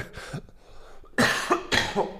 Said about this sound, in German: Boah, ich habe immer noch so einen harten Husten, ey.